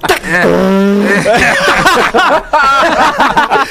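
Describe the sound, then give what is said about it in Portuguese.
A voice imitates the blown-out front speaker of a popular car, starting with a held, buzzy nasal tone and breaking into crackly, sputtering vocal noises, loud for a few seconds. “Como é que é o Twitter do carro? A, a caixa, a caixa de som da frente.”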